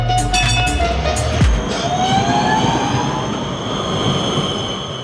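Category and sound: vehicle, tram running on rails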